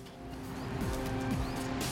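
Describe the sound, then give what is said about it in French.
Steady street traffic with car engines humming, as a couple of vehicles pass by, their engine pitch dropping as they go. No one speaks. “aujourd'hui on a trop de personnes et trop d'enfants notamment qui sont au niveau des pots d'échappement, là je vois les voitures qui passent”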